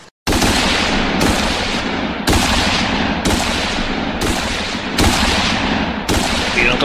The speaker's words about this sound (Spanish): Casi al mismo tiempo sonaron las descargas sobre el enemigo ubicuo e invisible.